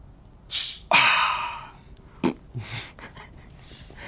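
A Belarusian-bottled cola bottle is unpacked and opened: a brief rustle, then a sharp hiss of escaping gas that fades over about a second, followed by a click and soft fizzing.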